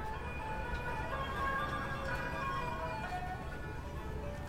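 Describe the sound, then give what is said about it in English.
The first movement, Eagle, of the 1996 soundscape composition Vancouver Soundscape Revisited, built from archival Vancouver recordings of the World Soundscape Project from the 1970s: a steady low rumble of traffic runs throughout while bright, chime-like tonal melodies drift across it at a constant, fairly loud level. “You're listening to the first movement, Eagle, of my 1996 soundscape composition, Vancouver Soundscape Revisited.”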